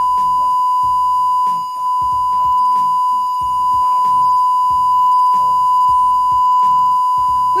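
A steady, unbroken censorship bleep tone runs for several seconds, loud and high-pitched, censoring a man's words while his voice keeps talking in Italian underneath it, partly masked.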